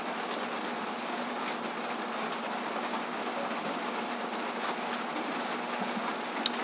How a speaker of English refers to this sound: It's 12:18 in the afternoon and it's raining here in our place.